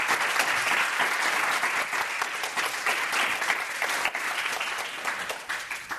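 Sustained applause from the audience in the room at the Michelle Meow Show, for four doctors: a dense wash of many hands clapping steadily and fairly loudly for about six seconds, with no voices over it and a slight easing toward the end.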